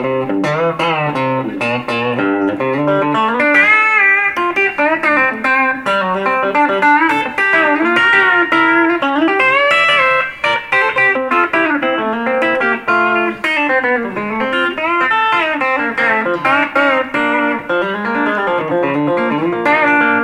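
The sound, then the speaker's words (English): An electric guitar with brand new strings plays a bouncy country shuffle riff on the back pickup, with a bright, twangy tone, steady and continuous for the whole stretch, fairly loud with no voices. “these brand new strings are stretching a little bit, but that's that'd be kind of the back pickup sound there.”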